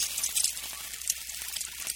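A steady sizzling hiss, like food frying in a hot pan, with fine crackles and pops scattered throughout, used as a sound effect for the sun cooking roofs in Arizona. It is fairly soft, with no voices.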